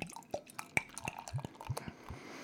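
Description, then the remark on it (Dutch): Session IPA beer being poured from a can into a glass: a quiet run of gurgling, dripping pops and splashes over a soft fizzing hiss, with no one talking. “Schenk hem maar in. Ik ga hem inschenken.”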